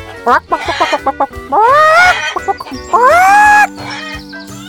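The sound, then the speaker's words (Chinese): Hens on Walker Farm cluck in quick, choppy bursts as they busily lay eggs in the early morning, then let out two long, drawn-out squawking cackles that rise and fall in pitch, loud and alone with no talking. “母鸡合力忙着下蛋。”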